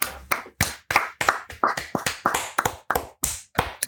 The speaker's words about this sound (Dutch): Mag ik daar even een luid applaus voor?